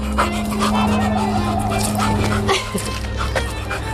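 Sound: dog barking and whimpering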